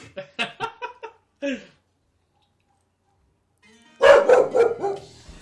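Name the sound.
dog barking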